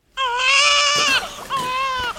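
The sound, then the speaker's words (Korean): A newborn baby, a few weeks old, cries in two loud, high-pitched wails, a long strained one followed after a short catch of breath by a second, briefer cry. “아, 어, 왜 계속 울기만 해?”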